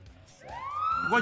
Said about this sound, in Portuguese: Opa, opa, opa. Piscou a luz. Tocou a sirene.